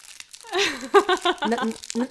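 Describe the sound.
A Snickers bar wrapper crinkles and rustles in short bursts, partly masked by a voice talking over it.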